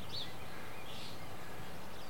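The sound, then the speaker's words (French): A few faint bird chirps in early spring, short high tweets scattered over a couple of seconds, above a low, steady background rumble of a motorized machine. “C'est le début du printemps, un peu en avance. On entend les oiseaux.”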